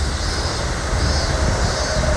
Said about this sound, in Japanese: ちょっとね電車が通ってうるさいかなって思う方いらっしゃったら申し訳ございません